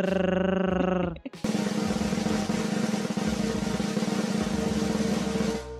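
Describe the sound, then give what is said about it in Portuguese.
A short sustained tonal chord gives way to a loud, continuous drum roll, a dense rapid rattle held steadily for several seconds before cutting off. No one speaks. It is played as a sound effect before the winner of a book giveaway draw is announced. “Toca aí uns tambores”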